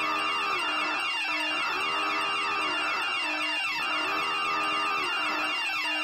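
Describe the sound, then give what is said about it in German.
A fire alarm horn blares on its own, a harsh, buzzy tone that repeats in steady whooping cycles, about four in six seconds, each with a short rising and falling sweep. “Wieso, wieso jetzt Alarm?”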